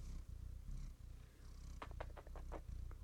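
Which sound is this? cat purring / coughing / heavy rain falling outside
cat purring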